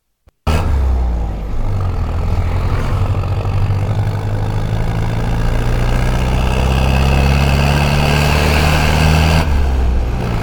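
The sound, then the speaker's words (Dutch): Loud, steady road traffic roar with deep engine rumble and droning low tones, as if heavy vehicles pass or idle, on a street just reopened to traffic after a car-free cycling day, continuing for about nine seconds before cutting off abruptly. “Oei, de Cyclobia is weer opengegaan voor het verkeer. Wat een herrie.”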